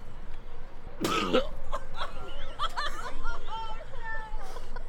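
A man vomits up close: one sudden harsh, heaving burst, then a string of strained, throaty gagging and retching noises that trail off over a low background murmur.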